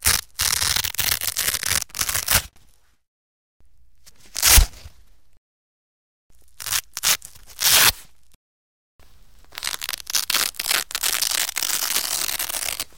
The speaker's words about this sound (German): Der Klettverschluss bei einem Schuh.